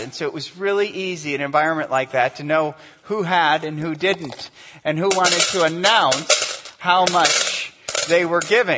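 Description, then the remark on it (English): A man keeps talking while a loud shower of coins clatters into a metal container, with two bright, jangling bursts in the second half. “Now it's interesting because if you were wealthy, if you were wealthy and you had a lot of coins, it would sound like this it would sound like that.”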